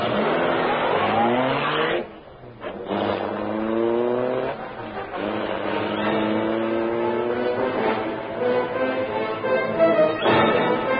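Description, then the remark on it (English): The engine of the Black Beauty, the Green Hornet's sleek, super-powered streamlined car, started by Britt Reed at the press of a button, roars loudly and revs repeatedly, pitch climbing with each acceleration as it speeds away into the darkness, powerful, with a brief dip before surging again. No talking. “The great car roared into life.”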